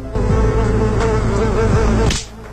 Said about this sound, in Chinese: 是苍蝇吗？ 是，还没打到。